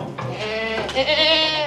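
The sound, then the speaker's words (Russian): A single sheep bleats loudly in a sheep pen in the corner of a tavern, a wavering, nasal baa lasting well over a second with a trembling, quavering quality. “В углу корчмы загон для овец.”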